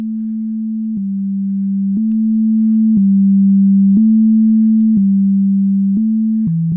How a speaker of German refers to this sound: Also, es tut mir leid, das, dieses MIDI-File ist wirklich, wirklich schlecht, ah, aber man könnte drauf kommen.